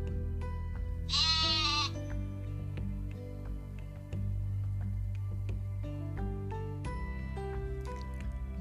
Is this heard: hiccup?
no